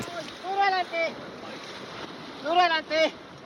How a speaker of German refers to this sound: Das Schlauchboot schießt durch Stromschnellen, wird hin und her geworfen von den Wassermassen des Rio Pato, der sich aufbäumt sich schäumend und gurgelnd durch dichten Urwald und wildromantische Schluchten schlingend.